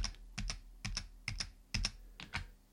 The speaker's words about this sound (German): wir müssen diesen ganzen Bereich von rechts her verkleinern und das tun wir mit der Tastenkombination Ctrl Shift Pfeil links. Ich drücke einfach mal fünfmal diese Kombination. Ctrl Shift und drücke jetzt fünfmal die F links, die Pfeil links Taste